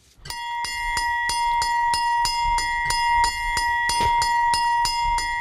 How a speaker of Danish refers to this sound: Det er hjemmeis, og den lyd er der i hvert fald mange børn, der kender. Jeg kender den selvfølgelig også fra dengang jeg var barn, og den var efterfulgt af en lyseblå bil, som rullede ind på på, på gaden